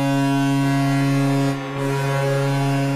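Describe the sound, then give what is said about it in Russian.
A deep, sustained Canadian Navy ship horn blares loudly as Toronto's hockey goal signal, holding a steady low tone with rich harmonics, briefly dipping before continuing, with no talking over it. “На арене Оттавы, как вы слышите, используют железнодорожный гудок, у Торонто сигнал канадских ВМС,”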